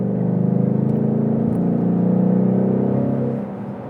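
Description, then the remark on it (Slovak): A car engine rumbles loudly with a deep, throaty exhaust growl, revving steadily for a few seconds with a slight rise and fall in pitch before easing off at the end. “A, a vrčí ti to a to neviem, že aký mám nastavenie teraz z výfuku, že som nedal, nie, závodný trať.”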